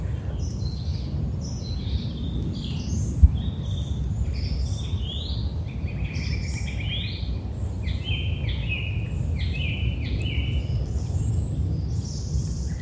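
Several birds chirp and twitter continuously in quick, scattered high calls over a steady low rumble of outdoor ambience in a forest.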